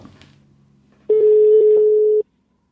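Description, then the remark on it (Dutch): A steady electronic ringback tone of an outgoing phone call to a team's press officer sounds for about a second, loud, after a quieter stretch of low background hum; the tone then cuts off abruptly into silence. “Zullen we gewoon eens bellen?”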